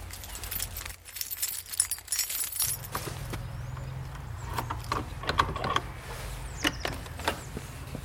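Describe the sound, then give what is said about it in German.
Keys jingle and scrape as the lock on the door of the eco tower (Ökoturm) in Emmendingen is worked, with several sharp metallic clicks and rattles over a low steady hum, ending as the door comes unlocked. “hat den Schlüssel und wir gehen mal ins Innere des Ökoturms Emmendingen.”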